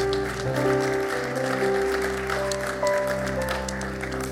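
Audience applause for a couple coming forward: a dense, continuous patter of many hands clapping at a steady level for several seconds, with sustained musical tones humming underneath.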